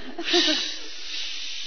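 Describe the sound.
A voice imitates the rush of a strong wind with a steady, breathy whoosh that swells early, then holds as a long airy hiss for under two seconds, with a faint voiced tone at the start.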